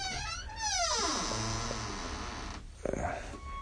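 During a recorded lesson, a door that needs oiling creaks open with a long, wavering, descending groan, with a few quick taps or knocks, over a low background hum.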